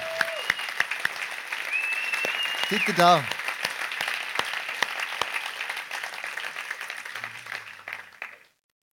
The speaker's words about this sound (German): Und cool seid ihr dabei und geben wir doch unseren Locations einen riesen Applaus. So cool.